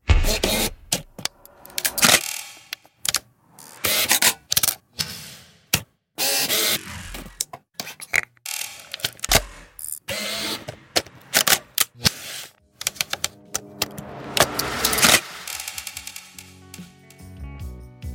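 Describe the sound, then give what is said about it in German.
Crisp reflex camera shutter clicks and clattering mechanism noises, arriving in irregular bursts with brief whirring and ratcheting sounds between them; no one speaks. “Und jetzt nochmal das fertige Snippet der Kamerasounds.”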